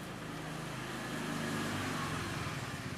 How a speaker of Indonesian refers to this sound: kita kan bisa kategorikan nih motor lewat biarinnya lewat oh motor lewat ya